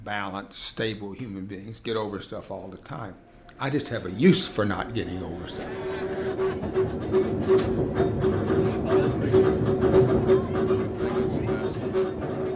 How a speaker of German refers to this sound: Quer durch Uptown und bis zurück zur Canal Street fährt das St. Charles Streetcar. Zierliche altmodische dunkelgrüne Waggons, die mit Klingeln und Quietschen und viel manueller Kurbelarbeit ununterbrochen seit 1835 durch New Orleans zuckeln